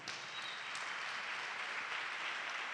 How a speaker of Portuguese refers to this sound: Você pode dar uma salva de palmas ao rei?